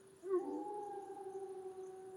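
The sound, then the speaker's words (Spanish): A wolf lets out one long, sustained howl that holds a steady pitch from start to finish, heard on its own, fairly soft, with no voices. “It was in an area of Yellowstone where people sometimes saw wolves.”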